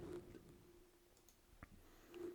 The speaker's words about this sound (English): Like you're typing in some serious numbers here. I'm not really. Uh, this is also Google Sheets, which is fucking awful